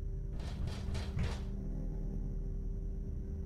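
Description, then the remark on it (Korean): Four evenly spaced knocks on a house's front door late at night, in quick succession, followed by a steady low background rumble with no voices. “그리고 얕게나마 잠에 빠졌을 그때 잠결에 어렴풋하게 누군가 현관을 두드리는 소리가 들려오기 시작했다.”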